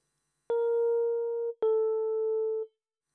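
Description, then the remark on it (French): Two sustained electronic-sounding tones play one after the other, each lasting about a second, a half step apart in pitch, forming a semitone interval. They are clear and steady with no voices. “Le demi-ton, qui finira fin 19e siècle par détruire la tonalité et les sensations de repos et détente.”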